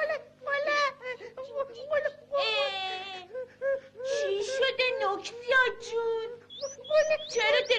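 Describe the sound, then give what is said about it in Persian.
A child cries and whimpers in wavering, high-pitched wails broken by short sobbing gasps, fairly loud, continuing without pause for several seconds. “گریه میکنی؟”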